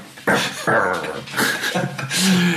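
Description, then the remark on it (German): A person imitates a dog with a run of loud whimpering yips and whines, several short strained bursts in quick succession with no other talking. “Ja, das war ich.”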